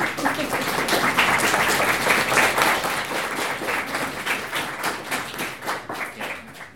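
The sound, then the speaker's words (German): An audience in Kassel applauds steadily for two invited critical social scientists, dense overlapping claps lasting several seconds before beginning to thin and fade at the end. No one speaks. “Das ist ein sehr wohlgesonnenes Publikum, das ist gut.”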